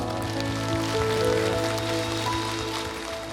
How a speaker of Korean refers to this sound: 하나님 앞에 감사와 영광의 박수 올려드립니다.